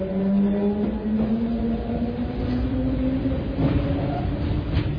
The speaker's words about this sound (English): Recordings taken from underground systems all over the world are mixed into so-called soundscapes and fed onto the streets through the sewers